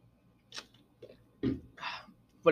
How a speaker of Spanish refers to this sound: Si escuchan ruido de, de que estoy tomando agua, es porque tengo un chico de sed, güey, así que no estén chingando, güey.